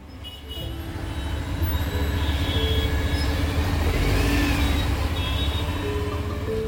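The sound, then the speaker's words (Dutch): Dense, steady roar of busy city-centre traffic on a major thoroughfare in New Delhi, India, with honking cars, rickshaws and motorbikes, rumbling engines and a few sustained horn blasts rising above the din, continuous throughout with no one talking. “Dus eh, aan alle kanten zijn eh, toeterende auto's, riksja's, motoren te horen.”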